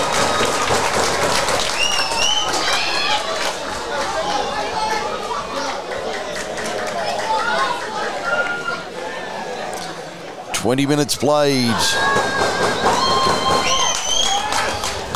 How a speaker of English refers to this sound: Wolves fans celebrate here at Linwood. Eschol Park 1, Narellan Rangers nil.